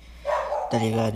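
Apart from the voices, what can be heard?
dog barking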